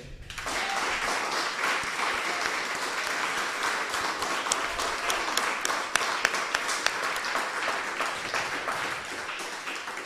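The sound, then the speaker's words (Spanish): Sustained audience applause at a broadcast religious gathering, given for the Eternal and for Moshe, a dense wash of many hands clapping steadily for about ten seconds, with a few sharper claps standing out and a faint murmur of voices beneath. “Y luego, otro aplauso para Moshe.”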